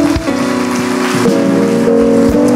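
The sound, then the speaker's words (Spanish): A church audience applauds loudly to glorify the Lord in a dense, continuous wash of clapping, while sustained keyboard chords hold underneath and low drum-like thumps land every so often. “Y alguien glorifica al Señor con un fuerte aplauso.”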